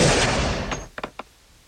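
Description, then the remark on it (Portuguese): A loud gunshot sound effect for a shot fired into a man's chest, with a roaring tail that fades over most of a second, followed by three quick, sharp clicks. No voices. “E daí ele faz a coisa mais inimaginável possível, que é dar um tiro no peito do, do Hamilton”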